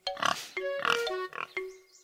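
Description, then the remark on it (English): A pig oinks in a quick series of nasal grunts, about four short bursts in close succession, loud with no other sounds around them. “Well, well, said the pig.”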